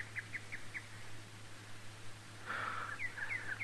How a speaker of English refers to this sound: No, just one of the horses, son, but you keep looking.